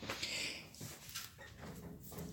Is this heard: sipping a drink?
no